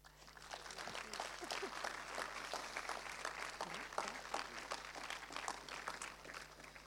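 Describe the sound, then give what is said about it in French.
An audience in Angers claps steadily for about seven seconds, a dense, even patter of many hands at moderate loudness with no one speaking over it. “Euh, donc euh, moi je propose qu'on applaudisse.”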